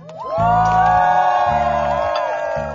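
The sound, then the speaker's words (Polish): A crowd cheers loudly, with many high voices whooping and shouting together for a couple of seconds over a low, steady background hum. “Wiecie, brawa!”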